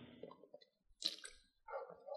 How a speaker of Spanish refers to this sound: Déjenme beber un poco de agua.